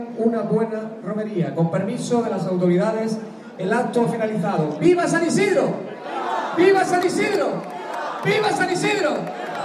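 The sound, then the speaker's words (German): A crowd of spectators spread along the streets at a village procession fills the scene with overlapping voices, a steady, fairly loud hubbub of calls and chatter, continuing without pause throughout. “Es dauert eine Weile, bis sich der gesamte Zug, der sich am Dorfrand aufgestellt hat, in Bewegung setzt. Das Publikum verteilt sich entlang der Straßen.”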